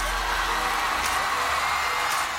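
A dense, roaring wall of crowd noise, with cheering and screams blending into a steady, loud wash that never lets up, as fans at a concert at Manchester Arena cheer the star stepping onto the stage.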